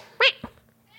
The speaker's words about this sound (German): wie immer ein guter Start, aber auch wie immer ein Katzenschrei. Ja, das habe ich auch gehört.